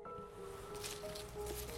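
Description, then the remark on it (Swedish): Soft crunching and rustling of leaves and twigs, like a few slow steps through underbrush in a forest, fairly faint, with a steady low hum lingering underneath. “Inifrån skogen var det ett par ögon som tittade på honom och ljudet av steg bland grenar och löv gick inte att missa.”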